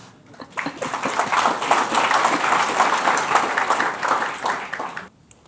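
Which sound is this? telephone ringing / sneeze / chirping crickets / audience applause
audience applause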